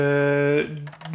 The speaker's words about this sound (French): Alors là, le petit bruit que vous entendez, c'est parce que je, déclipse la partie supérieure.